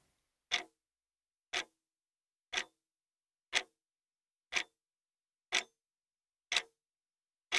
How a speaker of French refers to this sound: Imaginez la forme de l'horloge. Imaginez les aiguilles de l'horloge. Et observez le mouvement de l'aiguille qui avance sur le cadran, ou alors le mouvement d'une aiguille qui bat la mesure en rythme d'un côté, puis de l'autre.